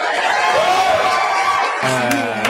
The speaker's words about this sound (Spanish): Vamos a darle un aplauso de bienvenida con mucho cariño a nuestro querido